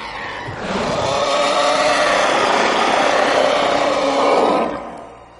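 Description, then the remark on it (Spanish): A sustained, raspy roar of the infected creatures, a vocal effect made by Mike Patton, vocalist of Faith No More, swells up and holds for several seconds, harsh and growling with gritty texture, loud throughout before trailing off. No speech. “Y esos característicos rugidos que emiten los infectados, ¿vale?”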